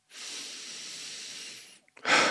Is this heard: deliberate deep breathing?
yes